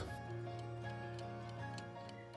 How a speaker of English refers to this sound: The clock is ticking.